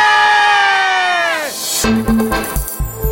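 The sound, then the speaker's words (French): After a count of one, two, three, a group lets out a long, loud cheer that sweeps downward in pitch, followed by a burst of excited shouts and whoops, energetic. “On va préparer les voix et ça va bien crier aujourd'hui.”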